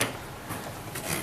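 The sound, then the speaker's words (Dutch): A classic wooden Boon Edam revolving door creaks and squeaks softly as it turns, a brief rasping groan with a couple of higher squeals, no voices present. “Het kraakt en het piept een beetje. Dit is het geluid van een klassieke draaideur van Boon Edam.”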